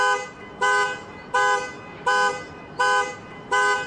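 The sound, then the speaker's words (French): A car alarm that kept going off near a man's home blares in a steady repeating pattern, six loud harmonic honks evenly spaced about every 0.7 seconds, each held briefly with short gaps between, prominent with no talking. “Le gars, il y avait une alarme de voiture qui arrêtait pas de sonner près de chez lui.”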